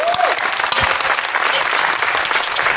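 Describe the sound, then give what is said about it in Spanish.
An audience on a television programme applauds steadily, dense clapping filling the whole stretch at an even, loud level, with a brief high whistle-like tone at the start. “Gracias, gracias. Eh, sí, sí, entiendo el aplauso.”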